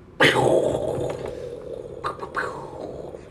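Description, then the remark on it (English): A voice imitates thunder with a sudden loud crack that fades into a rough, rumbling growl, then a couple of shorter crackling bursts near the end. “I mean, like, you think that sounds like lightning?”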